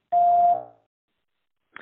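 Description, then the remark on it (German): A single loud answering machine beep, a steady electronic tone lasting about half a second before fading, followed by silence and the faint start of a voice at the very end. “Wir freuen uns über alles, was ihr uns nach dem Piepton hinterlasst.”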